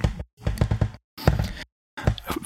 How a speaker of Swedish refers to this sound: Jag ber om ursäkt för min knarriga stol. Alltså jag, jag sitter vid datorn och jobbar åtta timmar om dagen. Och jag har en köksstol.